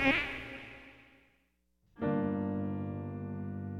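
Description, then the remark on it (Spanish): A mosquito's whining buzz in a radio advertisement, fairly loud, fades away to silence, then after a short pause snaps back on and drones steadily with no voices. “Ningún mosquito fue lastimado durante la realización de este anuncio.”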